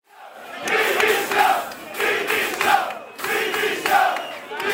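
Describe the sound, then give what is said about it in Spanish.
Hundreds of people crowded at the doors of a Castilla y León government office in Salamanca, Spain, chant and shout in unison, loud and rhythmic, with repeated surges of massed voices roughly every second in a protest call, echoing outdoors. “Cientos de personas agolpadas a las puertas de una sede del gobierno de Castilla y León en Salamanca.”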